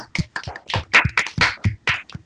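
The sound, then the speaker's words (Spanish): A short burst of applause: several hands clapping in quick, uneven bursts of sharp, bright slaps, moderately loud, with no voices over it. “Y esto se merece un grandísimo aplauso. Así que, aplausos.”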